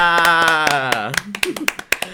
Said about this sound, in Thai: ซึ่งเมื่อสักครู่นี้ก็คือเสียงแตกไปแล้วจากการปรบมือ